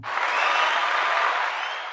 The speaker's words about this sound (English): We got the applause so, there.